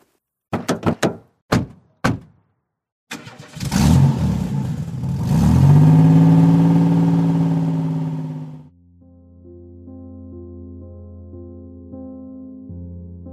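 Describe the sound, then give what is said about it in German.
A few sharp thunks like car doors shutting, then a car engine cranks and revs up loudly, rising in pitch before settling into a steadier, lower drone as the car pulls away; three people are heading out to their car. “Auf dem Weg nach draußen zu ihrem Auto beschließen die drei, in die Bibliothek des Tremere zu gehen”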